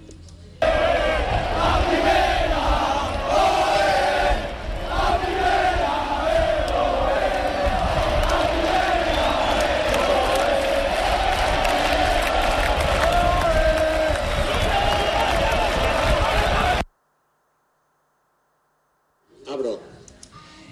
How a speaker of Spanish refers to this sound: Es solo sonido ambiente. Justo nada más saber el Sporting, que había subido a primera división, la plantilla en el césped, con el Pito Abelardo cantando a la afición que estaba allí.